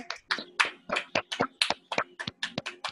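Close, steady hand clapping, about a dozen sharp claps in quick succession at an even brisk pace, like a small round of applause with no talking over it.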